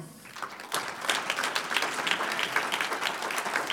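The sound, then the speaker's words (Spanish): An audience at a Spanish-language church service breaks into applause for the Lord, starting softly and swelling at once into steady, dense clapping from many hands that continues at a fairly even level throughout. “Un aplauso al Señor.”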